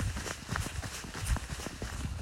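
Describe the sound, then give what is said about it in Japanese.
Quick, steady footsteps crunch through soft powder snow in Nagano in winter, at minus 6 degrees Celsius with light snow falling, each step a muffled, breathy compression repeating for a couple of seconds with no one speaking. “このちょっと聞いていただけますかね、この足音、この”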